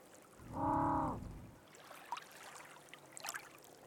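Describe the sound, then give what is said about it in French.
A lone African penguin at sea gives one loud, drawn-out honking call, followed by faint short squeaks over a soft wash of water, with no voices; recorded from a kayak about 10 metres away. “mais on a la chance de trouver un manchot. qui va émettre euh, plusieurs cris d'affilée.”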